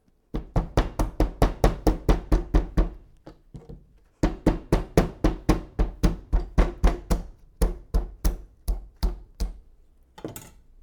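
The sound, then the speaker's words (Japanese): A rapid series of dull, thudding whacks as a cucumber is smashed with the handle of a kitchen knife to make smashed cucumber (tataki kyuri), about two dozen steady blows in bursts with short pauses, no talking. “では叩ききゅうりなのであここでいきましょうおうち音クイズ今から叩ききゅうりなのできゅうりを叩いていきますが何を使って 叩いているのか興味のある方は一緒に考えてくださいいきます”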